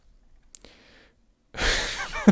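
A soft click and a faint breathy intake, followed by a loud, harsh burst of noise that sounds like a sneeze, with a sharp spike right at the end.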